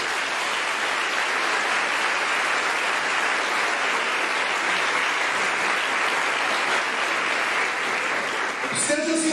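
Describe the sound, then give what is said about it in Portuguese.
An audience applauds the word of God after a Bible reading, a dense, steady wash of many hands clapping at an even loudness for about nine seconds before abruptly cutting off at the end. “Veja a sua vida e vamos aplaudir a palavra de Deus.”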